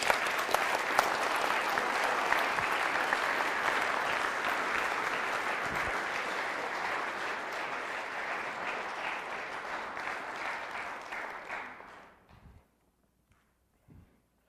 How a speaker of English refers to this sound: If you're one of these people, will you stand up that's getting baptized today? Okay, will you guys go back here and let's do this? And will you give them a round of applause for their courage?